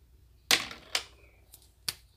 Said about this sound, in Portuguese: Ponto final. Joguei a caneta aqui, ó. Ponto final.